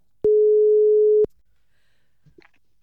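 A single steady telephone ringing tone sounds for about a second while a call is placed, a clean mid-pitched beep that cuts off sharply, followed by faint rustling and quiet clicks.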